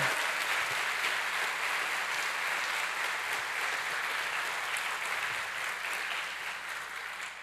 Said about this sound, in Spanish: ¿Cuántos dicen amén? ¿Cuántos dicen amén? Dele fuerte ese aplauso al Señor.